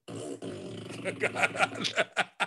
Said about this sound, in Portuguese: Mandamos arrotar, outra... mandamos peidar. Manda ela peidar,